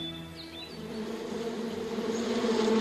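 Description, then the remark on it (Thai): A green bottle fly buzzes steadily, a droning hum with a bright whine that swells slightly louder toward the end. No one speaks. “เมื่อนางนกไส้ขอร้องกาเสร็จแล้ว จึงบินไปหาแมลงวันหัวเขียว ให้ช่วยเหลือนางแก้แค้นช้างเกเรเชือกนั้นต่อในทันที”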